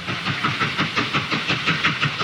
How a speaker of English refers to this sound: So now listen to the train. The train's going off.